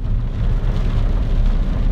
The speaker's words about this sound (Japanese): 今日はね結構雨激しいんですけども